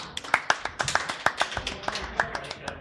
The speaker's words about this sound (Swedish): Bra, applåd.